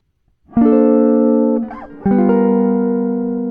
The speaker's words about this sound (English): There's a dominant se- uh, d- dominant seven sharp nine, so G seven sharp nine.